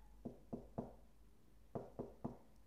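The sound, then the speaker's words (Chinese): Knocking on the door of a home in two groups of three firm raps, evenly spaced, with a short pause between the sets. No voices are heard. “这时，敲门声响起了。”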